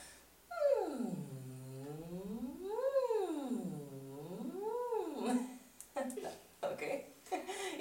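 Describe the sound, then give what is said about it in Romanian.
A single voice performs a siren vocal warm-up exercise, sliding smoothly up and down in pitch in several slow, wavy sweeps, clear, followed by a few short voiced sounds and breaths. “De exemplu, este această sirenă, cum îmi place mie să-i zic. Este un exercițiu așa.”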